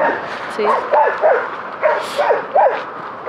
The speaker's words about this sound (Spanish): Uy, hay perros ahí muy enfadados.